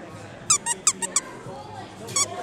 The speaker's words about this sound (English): I could hear it. Oh, it squeaks. Yeah, it squeaks.